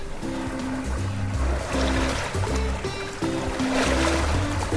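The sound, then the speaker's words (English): Deep, sustained cruise boat horn tones sound in several long blasts that shift slightly in pitch, layered over a steady wash of splashing, rushing water. “Honk, honk. There's the boat.”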